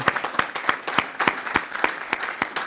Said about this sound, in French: Oui, on peut l'applaudir, parce que vraiment,